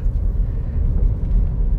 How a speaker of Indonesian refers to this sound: soalnya gue sambil bawa mobil and I told you right kayak um, ini ngobrolan memang waktu gue sambil bawa mobil gitu